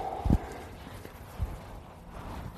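A walking horse's hooves clip-clop slowly, two dull thuds about a second apart over a low outdoor background hiss, with no one speaking.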